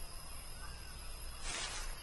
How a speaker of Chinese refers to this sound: No，那是绯红金刚鹦鹉。